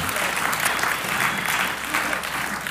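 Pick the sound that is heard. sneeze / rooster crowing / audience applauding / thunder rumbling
audience applauding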